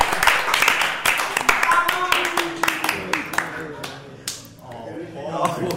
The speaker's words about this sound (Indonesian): Oke oke tunggu tepuk tangan